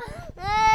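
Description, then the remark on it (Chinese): A child cries in two wailing bursts split by a brief catch of breath; the second wail is louder, higher and held steadily, with a bright, strained tone. “又是哭哭的声音。”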